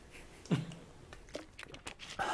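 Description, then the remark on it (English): A speaker giving a talk sips from a glass of water, with a few soft gulps and small clicks of the glass, quiet, with no talking. “I mean, I'm going to take a quick glass of water while you look at squirrels.”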